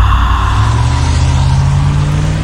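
A car engine, just started by a man sitting in the car, runs steadily, a loud, constant low rumble with a faint higher whine, holding the same level throughout with no voices.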